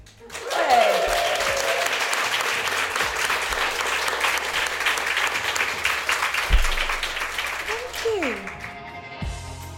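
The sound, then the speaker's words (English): A live audience at Bailey's HQ bursts into sustained, dense applause for several seconds, with excited whoops and cheers rising above the clapping before it tapers off near the end. “and thank you as well to our wonderful audience here at Bailey's HQ. Give yourselves a whoop.”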